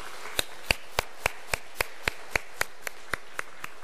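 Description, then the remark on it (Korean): A church audience claps together for the choir in thanks and encouragement, a steady, even rhythm of about fourteen crisp claps over a few seconds at a moderate level, with no voices over it. “우리 찬양대가 늘 그렇게 하나님께 찬양의 삶으로 나아가도록 우리 찬양대 감사와 격려로 우리 박수, 박수 한번 같이 하도록 하겠습니다.”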